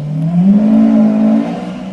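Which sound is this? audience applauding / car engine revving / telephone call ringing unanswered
car engine revving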